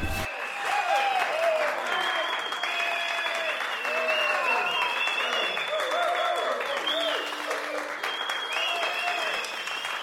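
Sustained audience applause, a dense, steady wash of many hands clapping for about ten seconds at an even loudness, with some sustained tonal sounds running underneath and no clear words.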